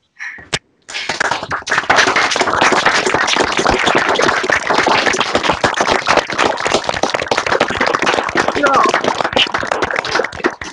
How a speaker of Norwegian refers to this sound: Så nå skal vi alle sammen slå på mikrofonene. Sånn at alle hører alle. Og så skal vi ta en samla og hjertelig god applaus til alle ansatte i Tine.